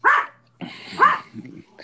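A dog barks twice, sharp, with a short pause between the barks and a faint low hum and scuffling noise underneath.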